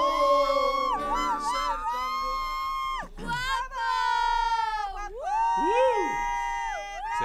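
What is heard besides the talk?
crowd screaming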